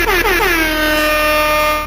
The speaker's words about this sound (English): Air horn and that mother, we're back, we're back.